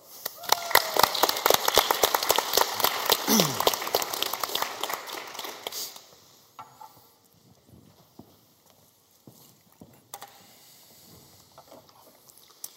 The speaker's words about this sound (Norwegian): Gi ham en applaus bortover.